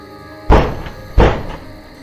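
Two heavy, booming knocks on a door, roughly a second apart, loud and close, each leaving a short resonant thud before fading. No one speaks.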